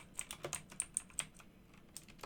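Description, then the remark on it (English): Quick, clicky keystrokes tapping on a computer keyboard, a burst of about eight presses in the first second and a half, then a couple of scattered taps, fairly quiet with no talking, while typing to look up a name connected with the film Blade. “I got the guy's name. Um. Come here, keyboard.”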